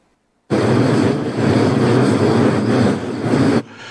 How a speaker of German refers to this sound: Also das, da höre ich, ich höre da auch noch Rauschen.